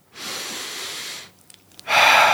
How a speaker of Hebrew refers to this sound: נשימה. נשימה, חמצן. נכון? אנחנו חייבים חמצן כדי לנשום.